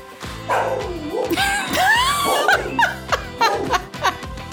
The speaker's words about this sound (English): Rocket, Rocket, hush. Rocket, I'm recording a podcast. This scene did not call for a barking pit bull.